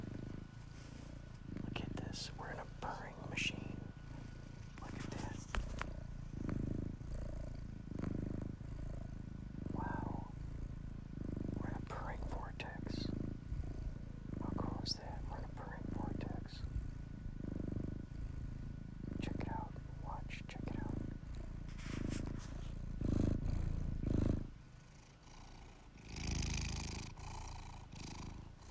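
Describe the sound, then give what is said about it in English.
A cat purrs steadily, its low rumbling pulses repeating in a regular rhythm for the whole stretch, with a few faint clicks and rustles around it. “Look at now we got this purring.”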